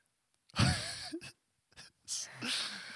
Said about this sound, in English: … had a crazy yawn.